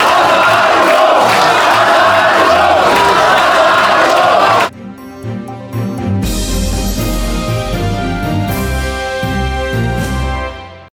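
A loud, agitated crowd of local residents shouts and yells together at a public hearing in Debrecen, protesting against the planned construction of a battery factory, for several seconds, then cuts off abruptly and a steady musical passage takes over for the rest.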